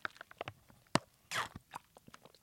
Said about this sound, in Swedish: Vänta, jag ska bara ta en slurk av min barnjuice.